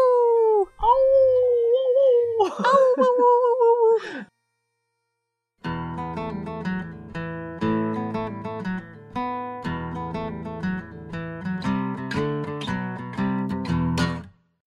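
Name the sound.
wolf howling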